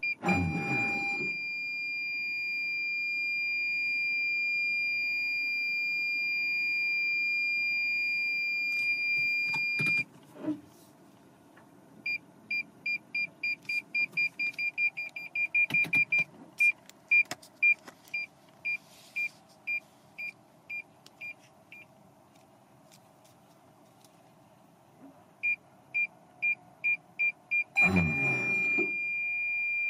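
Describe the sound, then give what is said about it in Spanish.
Inside a Yaris car reversing towards the car behind, a parking sensor holds a steady high tone, then beeps in bursts that quicken and slow, with a few dull jolts as the automatic reverse emergency braking stops the car about a metre short, and no one speaking. “te pones a hacer marcha atrás y te estás acercando al coche de atrás. Y cuando aún te queda un buen trecho, el coche pega un frenazo de emergencia y te llevas un susto terrible.”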